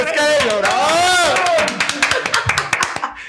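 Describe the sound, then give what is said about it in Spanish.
A crowd cheers loudly, with rising and falling whoops at first, then breaks into brisk, uneven applause with sharp claps that thin out toward the end, welcoming a guest. “Démosle la más cordial y cálida bienvenida y un buen aplauso”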